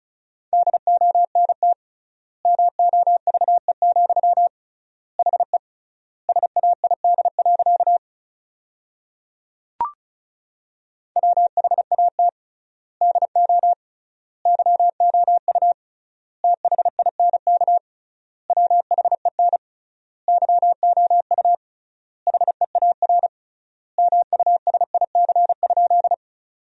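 Rapid Morse code beeps at 35 words per minute in a steady mid-pitched tone, fast dits and dahs forming sentences from the 300 most common words, with triple word spacing giving long gaps, clean and loud with no voices, plus one brief click partway through.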